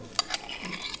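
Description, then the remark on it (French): Meringue crackling as it cooks in liquid nitrogen, forming a shell that hardens: a couple of sharp clicks over a steady, fizzy sizzling crackle, fairly quiet, with no voices. “On que crépiter, c'est la meringue qui est en train de cuire”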